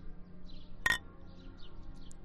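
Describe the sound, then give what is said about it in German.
A single bright clink of glasses touching together in a toast, short and ringing, over a low background murmur of room noise. “Prost.”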